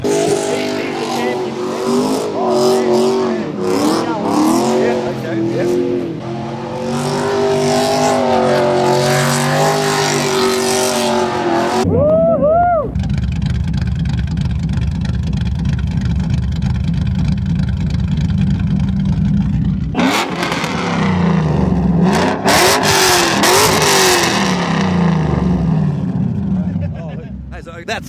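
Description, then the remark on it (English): A big 4.8 litre Ford engine revs hard with rising and falling pitch, settles into a steady, rumbling idle for several seconds, then roars through another burst of loud revving. “What was it? 4.8 Ford motor.”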